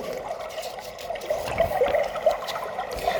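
Water suddenly rushes and flows steadily with a bubbling, gurgling churn over a continuous watery hiss, moderately loud, pushing the last remaining rocks along, with no voices.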